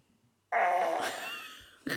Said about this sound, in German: du bist so eklig, dass du einfach furzt.